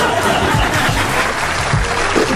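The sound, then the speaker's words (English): A round of applause: dense, steady clapping from many hands that holds at an even, fairly loud level for a couple of seconds, with no voices over it. “Y'all want to give me a round of applause for this being the end of this season?”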